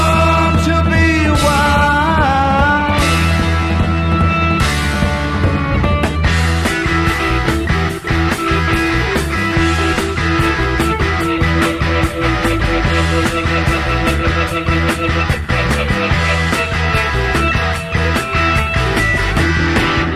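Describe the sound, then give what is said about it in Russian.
A hard rock song with pounding heavy drums and a driving bass line, loud and dense throughout, with distorted guitar and organ layered on top and no gaps in the music. “Мощный и резкий звук ударных и баса, гитарный драйв, вибрирующий электроорган и напористый яростный вокал лидера группы”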